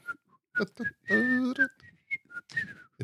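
Someone whistles a military march tune up close, a quick run of short, bright notes with brief pauses and a fuller, voiced stretch in the middle.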